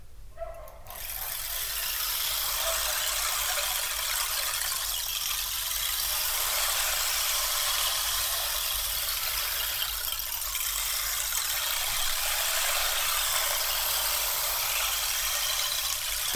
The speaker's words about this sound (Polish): Ale jeśli chodzi o instrumenty relaksacyjne, towarzyszące takiej właśnie kąpieli, to mogę Wam jeszcze pokazać. Y, ciekawe, czy ktoś słyszał instrument, który brzmi jak strumyk.